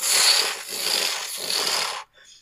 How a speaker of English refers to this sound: And you hear back the calls. and you hear the flapping of wings